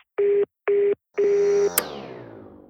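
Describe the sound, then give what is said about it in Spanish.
Three steady telephone voicemail tones on a call that will be charged after the tones: two short beeps followed by a longer one, which ends in a sharp click and a fading ring-out. Loud, with no talking. “Buzón de voz. La llamada se cobrará al terminar los tonos siguientes.”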